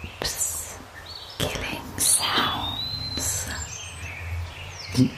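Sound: eerie whispering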